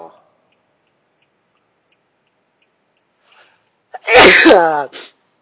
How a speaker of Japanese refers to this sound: くしゃみも心なしか、いつもよりも元気っすかね。まあ、元気、元気っていうか、なんだろうね。活気があるっていうか、張りがあるっていうか、うん。